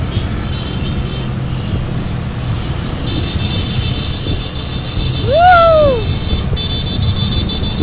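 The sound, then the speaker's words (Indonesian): Many pickup trucks roar past on a road on the left side, a steady loud rush of engine and tyre noise, swelling briefly midway with a short rising-and-falling tone cutting through. “mobil bak mobil bak mobil sebelah kiri mobil bak sebelah kiri dari belakang masih banyak”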